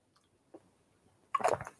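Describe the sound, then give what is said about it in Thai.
A quiet pause, a faint click, then a short burst of wet slurping as someone sips water, lasting about half a second. No one speaks. “ขออนุญาตดื่มน้ำไปด้วยนะครับ”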